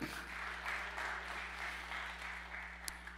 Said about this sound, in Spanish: Dele otro aplauso.